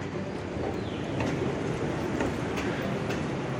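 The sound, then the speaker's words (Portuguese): A steady, loud rumble of a metro train moving through a station, with a continuous roar and faint rhythmic clacks and squeals, and no one speaking. “eu meio que gosto da organização das estações de metrô.”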